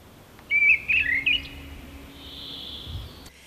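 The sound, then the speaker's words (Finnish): Mistle thrush song: a short burst of loud, fluting whistled phrases delivered in quick succession, then fading into a faint outdoor hiss with no voices. “Tosin tuolla pohjoisempana mäntykankaisilla alueilla, niin sitten tulee kulorastas vaikeudeksi, mutta kun mustarastas on kumminkin pehmeä ja hyvän tuulinen, niin kulorastas on sitten enemmän käskevä.”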